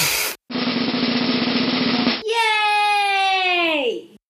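A voice imitates a drum roll with a rapid, buzzing rattle lasting about two seconds. It ends in a loud, sustained sung note that slides downward and fades out.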